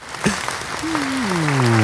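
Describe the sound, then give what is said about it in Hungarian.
An applause sound effect marking second place in the philosophy category on iTunes in Hungary: a dense, steady patter of clapping that grows slightly louder, joined midway by a sustained tone that slowly slides downward in pitch. “Ide jöhet egy taps.”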